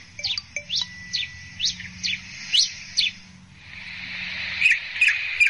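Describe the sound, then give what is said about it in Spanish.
A cacholote gives a series of sharp, repeated chirping calls in an irregular rhythm, clear, followed by a brief burst of higher whistled notes over a soft background hiss. “Estamos escuchando un cachalote.”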